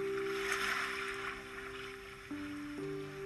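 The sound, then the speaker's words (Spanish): A steady wash of ocean surf, played from an online video, hisses continuously in the background, joined by a low sustained droning tone that shifts pitch a couple of times. No one speaks. “Escuchar el mar de fondo, como lo estamos haciendo ahora con un video de YouTube.”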